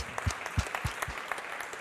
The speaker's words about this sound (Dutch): Een applaus.